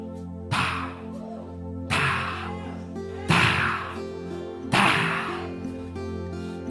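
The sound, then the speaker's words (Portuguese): Slow, heavy footsteps draw nearer, four loud evenly spaced thuds about a second and a half apart, each ringing out briefly over a sustained, droning musical background. “Mas diz que enquanto o inferno fazia festa, de repente o barulho da farra lá dentro, de todos os demônios saltando é interrompida, porque começa a se ouvir umas pisadas chegando.”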